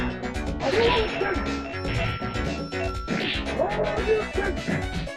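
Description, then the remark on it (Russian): Strange electronic computer-game sounds play loudly and continuously, a dense clattering mix with swooping, warbling tones that rise and fall in two similar waves. “какие-то странные компьютерные звуки.”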